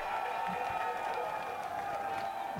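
Steady, dense applause with crowd noise fills the whole clip, a continuous hiss of many hands clapping at an even loudness without pause, welcoming a guest onto a show.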